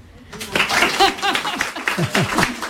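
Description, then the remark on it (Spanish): An audience bursts into steady applause after a brief quiet moment, dense clapping with cheering and laughing voices mixed in, loud and sustained to the end. “un aplauso muy fuerte.”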